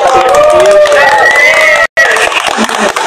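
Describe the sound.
Loud, steady crowd applause with cheering and high whooping voices rising over the clapping, broken by a brief cut partway through before the noise resumes.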